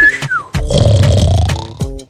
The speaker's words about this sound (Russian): Ты опять свистел? Нет, это нос.